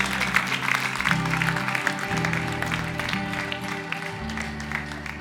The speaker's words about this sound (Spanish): Gloria a Dios. Aleluya. Dios ha sido bueno con nosotros darle un aplauso al Señor